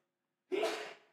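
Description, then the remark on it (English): A single sneeze from an audience member: a sudden sharp burst of breath after a moment of quiet, fairly soft and trailing away quickly, with no talking. “Bless you.”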